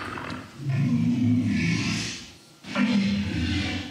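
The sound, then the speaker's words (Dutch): A walrus bellows in two long, loud, low-pitched roaring calls separated by a brief pause, each one rough and growling with a breathy hiss on top. “this is a walrus.”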